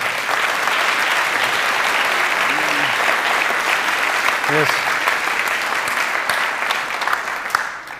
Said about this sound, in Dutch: Ik weet dat jullie daar niet voor doen, maar ik wil toch eventjes jullie gaan staan. ik zou even willen vragen of jullie een applaus willen geven aan deze mensen.